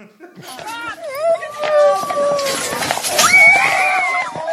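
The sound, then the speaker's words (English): A horse lets out loud, shrill whinnies and squeals in several rising and falling bursts as a dog fights it and bites it, amid a noisy, chaotic scuffle with voices mixed into the commotion. “I don't know if this was Lady Gaga's dog walker that she probably fired now, but a dog was fighting a horse. Word. Yeah, dog bit the horse.”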